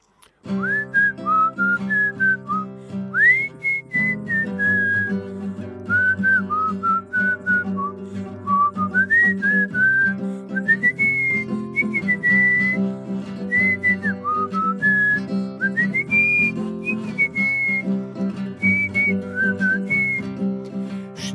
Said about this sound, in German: Und vielleicht pfeife ich vorher mal die Melodie,